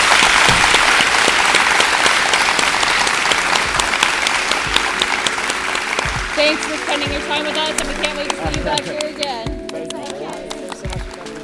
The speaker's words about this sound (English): So let's join me in giving another round of applause to the company of the Pulse, Gravity, and Other Myths.